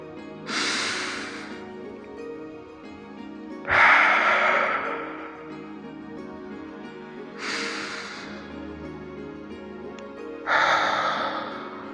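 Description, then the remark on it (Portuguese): Slow, deep, conscious breathing, with four airy, hissing breath sounds drawn in a steady rhythm about every three seconds. Each swells quickly and fades out, fairly loud, with no talking. “atraindo bons pensamentos e boas energias para as células nessa respiração consciente e presente. Isso. Alimente suas células da boa respiração.”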